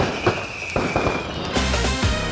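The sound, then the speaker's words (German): Fireworks crackle and pop in a dense, noisy burst, with several sharp bangs standing out over a continuous fizzing rush, fairly loud, with no voices. “Oh, ich habe das Feuerwerk vergessen. Warte, ich drück noch auf den Verdammt, Knopf warte mal.”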